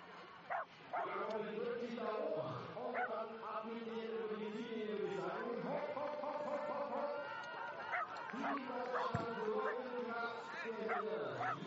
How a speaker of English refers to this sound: It's great to see the German supporters out here. In Oberjoch, no shortage. People cheering the young German on, Robin Kraft.